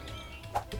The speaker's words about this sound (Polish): To jest dźwięk obracania się w prawo albo w lewo, a teraz pójdziemy sobie naprzód.